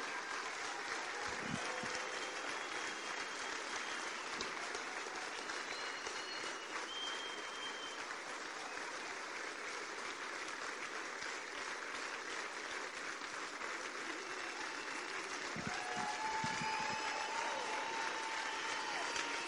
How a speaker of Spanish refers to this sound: Denle un fuerte aplauso a cada uno de ellos.